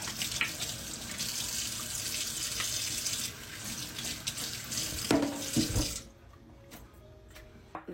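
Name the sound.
hot water running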